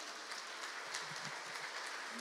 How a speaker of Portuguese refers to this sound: Vamos aplaudir a Cristo, irmãos.